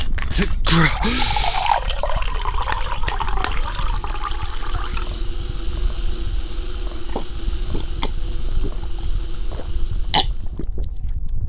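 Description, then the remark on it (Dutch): Three effervescent tablets plop into water with a brief splash, then a steady fizzing hiss of bubbles continues for several seconds, with occasional small pops, before fading out. “Ik weet dat ik drie bruistabletten moet pakken, maar ik weet niet waarvoor of waartegen.”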